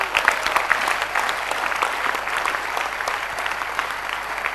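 A crowd applauds steadily, dense hand clapping filling the whole stretch at an even, fairly loud level with no voices standing out.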